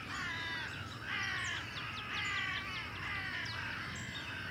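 A flock of crows caws in harsh, overlapping calls, a steady raucous chorus with bursts roughly every second over a low, rumbling background. No one speaks.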